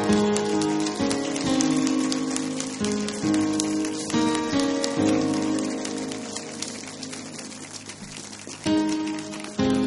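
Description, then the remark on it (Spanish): An audience applauding the Lord: dense, steady clapping fills the whole stretch over sustained musical tones, dipping briefly midway and swelling again near the end. No one speaks. “Y Él va a resucitar tu vida déjale otro aplauso al Señor.”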